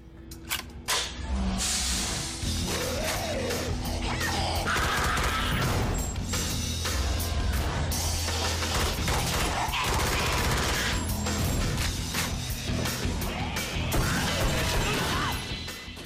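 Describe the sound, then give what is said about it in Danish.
Loud gunfire bursts in the video game Doom with metallic weapon reloading clicks and clanks and the character's breathing, dense and continuous over a droning low rumble, with no talking. “man hører godt efter, så kan man måske høre, at alle lydeffekterne er, når han lader sit våben og trækker vejret sådan.”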